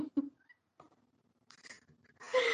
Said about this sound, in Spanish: Permíteme porque mi gato está dando lata. Bájate de ahí.